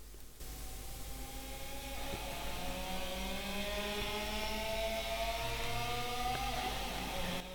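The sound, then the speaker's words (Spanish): Loud, distorted electric guitars climb steadily in pitch over a thick wash of noise, imitating a revving motorcycle engine, sustained for several seconds with no voices. “que empieza con esas eh, guitarras moto clásicas y que, que tanto bien hacen.”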